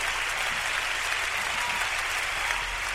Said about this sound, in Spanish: Ya dejen de aplaudir, caray.